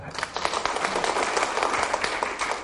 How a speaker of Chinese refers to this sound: 好，谢谢你。好，掌声鼓励。